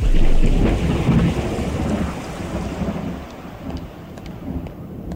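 Steady rain hisses throughout while a deep roll of thunder rumbles loudly at the start and slowly fades into the downpour. No voices are heard.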